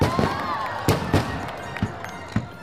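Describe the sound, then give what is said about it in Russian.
Five or six sharp firecracker bangs go off at irregular intervals, some loud, over a steady background of crowd noise with faint whistling tones drifting through. “Я вздрагиваю от взрывов петард.”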